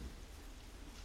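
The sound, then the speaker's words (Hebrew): Heavy rain pours down in a steady, unbroken hiss with a low rumble beneath it, fairly soft, in the early morning at first light. No one speaks. “איזה גשם. לא אפסיק לרדת לשנייה.”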